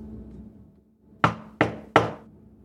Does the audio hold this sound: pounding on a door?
yes